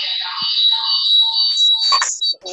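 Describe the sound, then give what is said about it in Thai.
A camera gives off a steady, high-pitched electronic beep that holds unbroken for the whole stretch, with a few faint murmurs and shuffling sounds underneath. “เสียงมันกล้องค่ะ”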